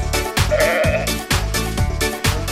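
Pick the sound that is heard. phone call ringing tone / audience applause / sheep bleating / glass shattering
sheep bleating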